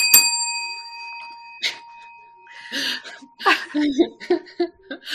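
A single bright bell ding rings out sharply and hums for a second or two as it fades, then people break into laughter.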